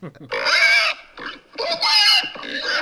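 A pig oinks and squeals loudly in three quick, harsh bursts, with short gaps between them and no other sounds around.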